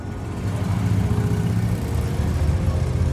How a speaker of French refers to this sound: Vers 15h30, une moto de la police passe sur la route 114, puis s'éloigne.